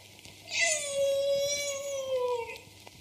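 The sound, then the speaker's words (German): A person does a drawn-out, wavering meow imitation lasting about two seconds, moderately loud, with no talking around it. “Katze?”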